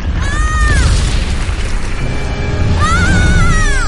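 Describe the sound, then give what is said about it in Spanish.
A tree crashes down next to a baby beaver with a loud, sustained booming rumble, overlaid by two rising-and-falling high creaking whines, one early and one near the end. “Un árbol se desploma junto a una cría de castor.”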